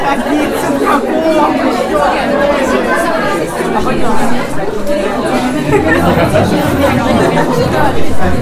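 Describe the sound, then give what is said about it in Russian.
Dense, loud crowd din fills an indoor bar, with overlapping voices and chatter blending into a steady roar of babble, no single speaker standing out. “И я соглашаюсь и думаю, что дам вам послушать этот хаос еще немножко, но удивлюсь, если вы будете слышать не только грохот.”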